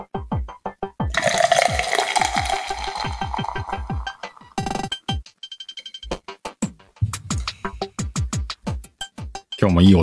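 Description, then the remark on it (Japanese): Beer is poured into a glass, a steady fizzing, gurgling stream lasting about three seconds, followed by scattered clinks, taps and short handling noises. “音出るんじゃないですか 久しぶりのビール片手に鹿ラジオだね。えー、乾杯”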